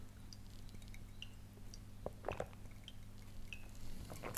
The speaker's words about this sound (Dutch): Ik drink even koffie in, maar ik ben wel bang, want het is warm.